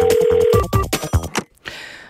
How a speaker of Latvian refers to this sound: bet mums klausītāji jau zvana. Es pacelšu klausuli.